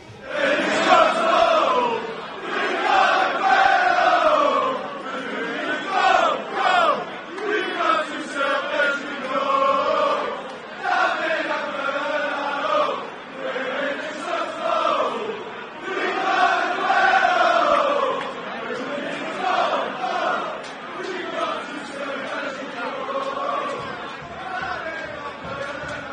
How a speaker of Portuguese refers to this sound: Sobe som para torcida do Manchester City.